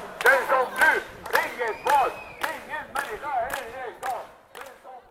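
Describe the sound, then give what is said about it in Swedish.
A demonstration crowd of many voices chants the slogan "Den som flyr har inget val, ingen människa illegal" together in a steady, rhythmic cadence, loud and insistent, with a few sharp claps or thumps punctuating the repeated phrases. “Jag hör dem ropa. Den som flyr har inget val.”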